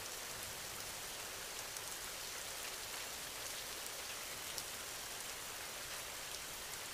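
Steady rain falls continuously, a dense even hiss with faint scattered droplet ticks, soft with no voices or other sounds.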